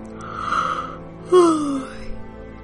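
a person yawning

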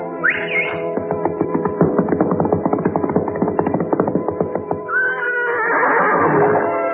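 horse neighing

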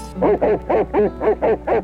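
dog howling

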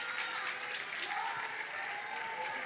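audience applause in church

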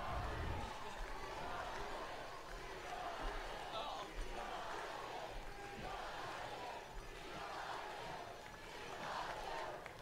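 crowd shouting

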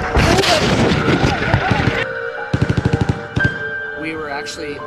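machine gun fire

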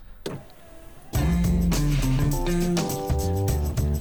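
show jingle

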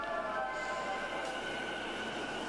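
train riding along rails

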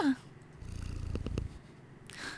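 kitten purring

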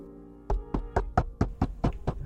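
knocking on a door

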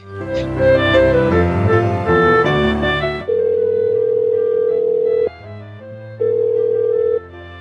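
telephone line tone

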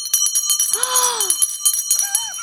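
bell ringing

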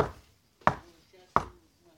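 knocking on a door

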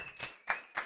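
hand clapping applause

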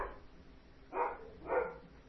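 dogs barking

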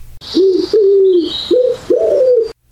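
pigeon cooing

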